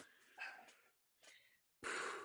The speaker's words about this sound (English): thinking about him is making me yawn like it's it's bad it's it's just it's awful